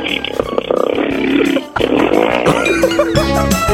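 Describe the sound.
A second-year high school girl imitates a motorcycle engine with her voice on Park Myung-soo's Radio Show: buzzy, sputtering revs, a brief drop in the middle, then rising whines and throttle-like bursts, loud throughout.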